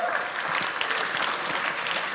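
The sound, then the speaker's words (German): Steady applause from an audience, a dense wash of many hands clapping at once, moderately loud and sustained for a couple of seconds without a break. “Ja, muss man jetzt äh, nicht für klatschen”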